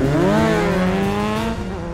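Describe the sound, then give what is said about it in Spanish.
A motorcycle engine revs loudly, its droning pitch climbing and then holding steady for a couple of seconds before easing off slightly. “Eh, eh, Espi, ¿de dónde has sacado esa moto?”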